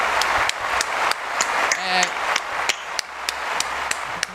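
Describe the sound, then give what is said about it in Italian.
Steady rhythmic applause, sharp claps at an even pace over a hissy wash of noise, with a brief voiced sound rising in the middle. “Ma appunto è quello che dico, un bel applauso per la fluidità.”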